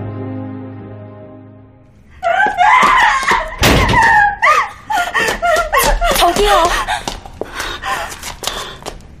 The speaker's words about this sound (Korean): 비명을 지르며 집에서 뛰쳐나온 하진 앞을 누군가 가로막았다